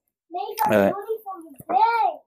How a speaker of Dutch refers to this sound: Hoor je, dat is mijn dochter die roept. Die zegt dat ik fan ben van Donny van der Beek.